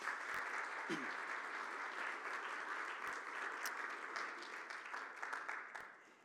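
A large audience claps together in sustained, dense applause welcoming a couple as they come forward, filling the room at steady volume for several seconds, then beginning to taper off at the end.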